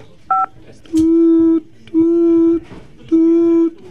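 A single short telephone keypad beep as the 5 key is pressed during a phone call, then three longer buzzy electronic tones repeat at steady intervals, each lasting under a second, clear with no talking.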